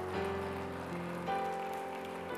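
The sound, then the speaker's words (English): A church audience applauds Jesus in a steady, dense wash of clapping that holds throughout, with sustained keyboard chords ringing underneath and shifting pitch partway through. “Can we applaud Jesus in this place?”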